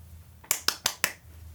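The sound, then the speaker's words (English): Four quick hand claps in an even, steady rhythm, each a sharp, bright crack that fades fast, standing alone against a faint low hum with no talking, given as a four-out-of-five rating. “You gotta at least clap four times.”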